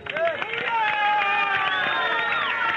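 A crowd claps and cheers at full volume for a woman from Ridderkerk coming up the steps onto the stage, steady dense clatter with whoops and raised voices rising over it throughout, no single speaker standing out.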